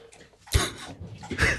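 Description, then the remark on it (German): A dog laps up water, with two bursts of wet, splashy slurping separated by a brief pause. No one speaks. “Der Hund trinkt.”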